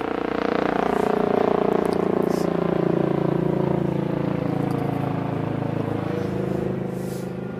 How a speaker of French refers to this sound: Bon, je suis désolé pour le bruit ambiant de la ville, mais euh, là maintenant c'est l'hélicoptère de la police.